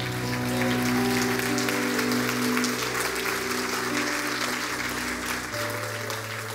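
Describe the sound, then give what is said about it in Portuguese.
A crowd applauds the Lord, clapping continuously and densely for several seconds, a steady wash of hands with a sustained musical tone humming underneath, like a large audience applauding. “Aplauda o Senhor.”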